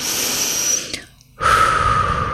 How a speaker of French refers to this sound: tu associes quelques respirations comme on en a déjà beaucoup parlé